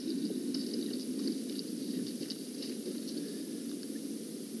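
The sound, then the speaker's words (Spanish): Continuous soft, bubbly liquid churning as a bottle with dirty water at the bottom is shaken, fairly quiet, with a steady texture for several seconds and no talking. “Esta tenía un agua sucia en el, fondo de ella. La he agitado y está totalmente negra.”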